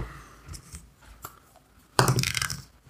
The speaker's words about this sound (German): Und dann würfelst du ein W10.